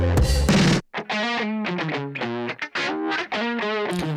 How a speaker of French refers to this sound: là, c'est sur des guitares, mais. là, il combine plusieurs effets, à la fin, ça donne des trucs complètement ouf, quoi.